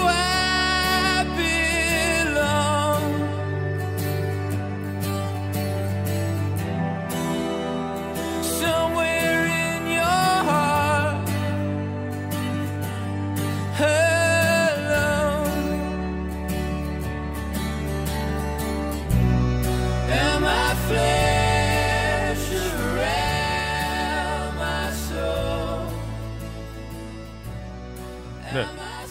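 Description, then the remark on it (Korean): A song by a Welsh singer-songwriter plays steadily from start to finish, with a sung melody gliding over sustained, simple chords and a firm, shifting bass line. The mix is full and evenly loud, with no talking over it. “그런 의미에서 바로 이 노래 준비했습니다”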